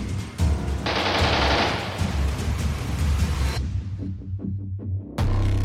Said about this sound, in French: Soudainement, nous entendons des coups de feu qui semblent partir des arbres. Un Allemand est repéré. Aussitôt, un véritable tir au pigeon s'engage jusqu'au moment où ce dernier tombe de son perchoir.